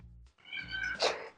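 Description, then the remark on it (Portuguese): A female cat throwing itself at a window lets out one drawn-out, insistent meow, rising and then roughening near the end, after a brief low rumble at the start. No one speaks. “a gata me se jogar na janela”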